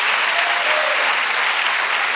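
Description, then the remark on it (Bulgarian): An audience applauds steadily, a dense, even wash of many hands clapping at once that holds the same loud level throughout with no voices standing out. “О, ако ръкопляскаш, ръкопляскаш, че вярваш.”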